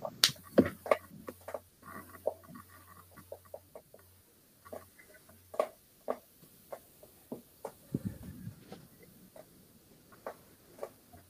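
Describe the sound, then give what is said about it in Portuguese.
Fingers tap on a chair in quick, uneven bursts of sharp knocks, fairly crisp, with a faint low hum in the background and no talking. “Tava só batendo a, a, os dedos assim, ó.”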